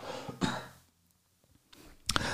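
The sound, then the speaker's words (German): A couple of short coughs, one near the start and a sharper one toward the end, separated by a quiet pause with faint breathing. “Ich habe gerade gehustet, hat man hoffentlich nicht gehört.”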